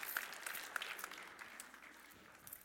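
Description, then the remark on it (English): An audience applauds everybody after a game at a youth ministry gathering, a dense crackle of many hands clapping at once that holds fairly steady before thinning out slightly toward the end. “Round of applause for everybody.”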